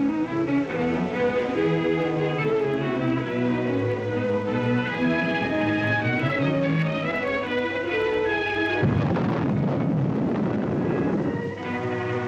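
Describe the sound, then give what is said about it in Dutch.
Steady orchestral-style music plays, then near the end a dynamite charge, placed with loading rods at the bottom of a hole so seismographs can register the vibrations, goes off underground: a sudden, heavy, muffled roar that rumbles for about two seconds before fading back under the music. “Met laadstokken plaatst men op de bodem van het gat de dynamietlading die men vervolgens tot ontploffing brengt.”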